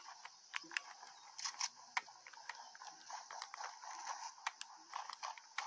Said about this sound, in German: Hier ist ein Gegner. Ich höre Schritte. Ich fahre weg.